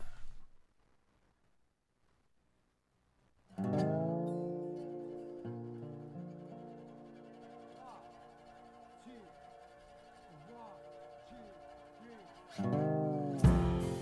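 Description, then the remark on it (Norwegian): After a few seconds of near silence, a religious blues song kicks in with sustained, full-bodied instrumental tones and a wavering sung melody, playing steadily and growing louder toward the end. “Hva heter låta vi skal høre?”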